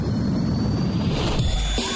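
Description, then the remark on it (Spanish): A spacecraft's engines, at optimal energy levels, roar steadily at takeoff, a loud, continuous rumble with a thin high whine riding on top, the tone shifting slightly toward the end. “Motores. Con niveles de energía óptimos. Iniciamos despegue.”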